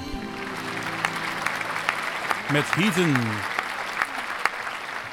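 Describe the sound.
A crowd claps steadily throughout, a dense, continuous patter of applause, while a man's voice speaks briefly over it near the start before the clapping carries on alone.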